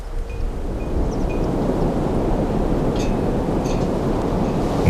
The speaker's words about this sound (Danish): Foran diget slår havet og vinden rasende ind i Hvideåens munding. Under græsset afløser jorden så havets lag uophørligt hinanden. Vandet plasker hårdt ind mod kysten.